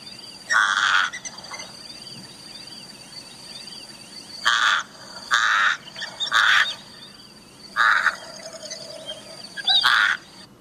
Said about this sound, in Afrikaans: Maar dan ehm um, is daar natuurlik aaklige geluide ook en 'n mens dink hier aan die kraaie.